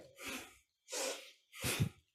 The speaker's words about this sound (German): Wir fangen einfach mal an, nach rechts zu drehen und dabei einzuatmen und dann nach links und dabei auszuatmen. Sollen wir mal machen? Mhm. Wir atmen in der Mitte aus und dann machen wir ein, aus, durch die Nase.